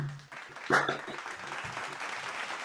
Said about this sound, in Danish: Jeg tænker lige, at vi giver os selv sådan en, øh, en lille applaus her, fordi at, øh, vi klarer os igennem.